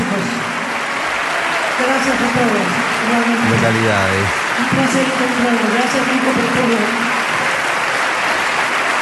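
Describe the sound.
A theatre audience at the Teatro Colón gives a sustained ovation after a sung performance, dense applause filling the whole clip at a steady, loud level, with voices and shouts rising through the clapping.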